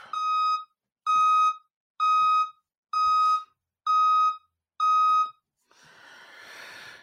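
A truck's backup beeper sounds six times in a steady, evenly spaced rhythm, each beep a loud, buzzy mid-pitched tone, followed by a soft, breathy rush of noise.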